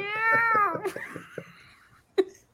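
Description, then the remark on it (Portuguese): A cat gives one long, loud meow whose pitch slides downward and fades, followed by a quiet stretch and a brief sharp click near the end. “Aí você aparece, ó. ó. ó o gato.”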